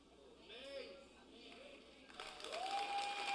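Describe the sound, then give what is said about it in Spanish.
An audience breaks into scattered applause that swells and thickens over the last second, while a voice keeps talking and calling out above it. “Le está dando brega, aplaudir.”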